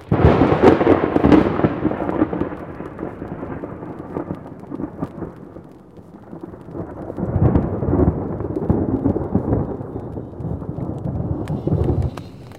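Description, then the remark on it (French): A thunderstorm with deep, rumbling thunder rolling in two long swells over steady rain, loud, with no voices. “on va avoir une nuit d'orage.”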